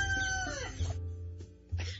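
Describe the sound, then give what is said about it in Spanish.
A loud rooster's crow, its drawn-out tone sliding downward at the end, then fading into low background rumble with a couple of soft knocks. “Así nos canta el gallo. el canto del gallo, ¿verdad?”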